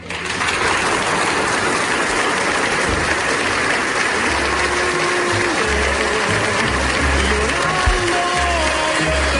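A large crowd, nearly a whole village gathered in the town's cultural centre, bursts into loud, sustained applause as a woman enters. It is a dense wash of clapping that holds steady throughout, with scattered voices mixed in.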